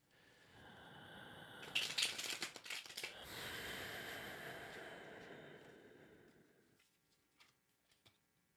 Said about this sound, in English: So just take a moment. Connect to the cards by hearing the sound of them being shuffled.